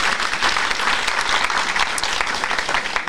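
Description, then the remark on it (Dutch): Steady applause fills the whole stretch, a dense, even patter of many hands clapping at a consistent loud level without pause or voices. “ja applaus.”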